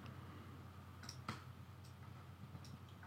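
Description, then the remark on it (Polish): A handful of faint, crisp computer mouse clicks at irregular intervals, one a little louder than the rest, as someone clicks on folders and holds the button to select them, over a steady low background hum with no talking. “No, odznacz wszystko i po prostu kliknij na jeden y, z folderów i trzymając przyciśnięty przycisk zjedź na dół.”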